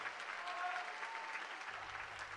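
Steady audience applause, a dense wash of many hands clapping at an even, sustained level for a couple of seconds, with no pauses or voices standing out.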